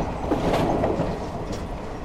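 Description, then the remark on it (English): A train rumbles steadily along the tracks, its wheels clattering in a continuous, fairly loud roar with faint higher squeaks, and no voices. “The Germans are here. They're about to search the train.”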